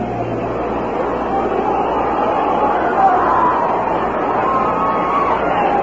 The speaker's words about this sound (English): The crowd, you hear them reacting in the background. They are listening to the waning moments of the Rams game.